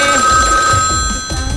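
A telephone rings for an incoming call on a listener phone-in line, a steady electronic ring with bright sustained tones that carries through the whole short moment, fairly loud, with no one speaking.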